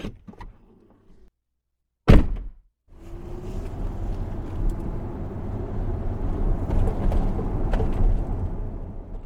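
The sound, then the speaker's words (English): A rental car door slams shut with a single solid thunk, then an engine starts up and a steady, rising rumble of the car driving off toward what used to be Endertown, Washington, continues. “I left Reggie there and got in my rental car and headed to what used to be Endertown, Washington.”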